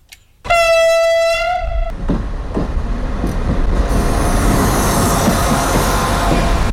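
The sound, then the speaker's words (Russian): A loud, single train horn blast sounds for about a second and a half as the first passenger train on the new Vilnius–Riga route arrives in Riga, Latvia, then gives way to a steady rumbling roar as the train rolls in. “Первый поезд по новому маршруту Вильнюс-Рига прибыл сегодня в столицу Латвии в 10.43, минута в минуту, с тем, как и было заявлено.”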